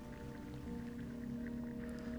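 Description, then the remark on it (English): Soft, wet squelching of feet stepping forward into mud and water for a mud bath, with faint drips and gurgles over a steady low hum; the sounds stay muted, with no talking. “You step forward into the mud and water and bend your knees, lowering yourself.”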